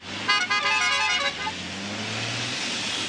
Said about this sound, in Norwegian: Du, der kom jeg på noe. Fordi eh, når han tuter det, Vi kan høre